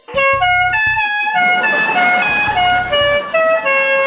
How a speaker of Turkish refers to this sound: Sizi havalı kornamla selamlıyorum. Bak bak.